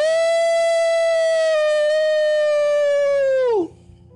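A long, loud animal howl in the woods holds a steady mid-high pitch for about three and a half seconds, then swoops sharply downward and breaks off into quiet. No one speaks.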